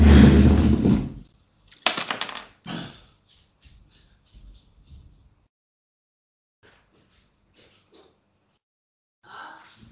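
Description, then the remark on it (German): A door is opened to let someone in: a loud rustling burst, then a sharp latch-like clack and a few thuds, followed by faint scattered movement and shuffling noises with long quiet gaps. “Ich müsste mal ganz kurz die Tür aufmachen.”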